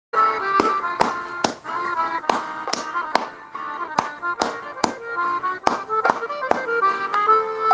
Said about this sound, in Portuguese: Só ouçam a música e vejam como as palmas que eu farei se encaixam no ritmo, entenderam? Coloca um funk aí, professor, para animar.